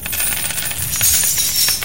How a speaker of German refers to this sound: Das Klingeln und Klimpern wird lauter.